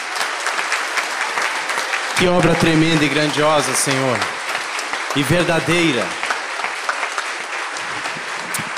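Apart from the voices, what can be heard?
audience applause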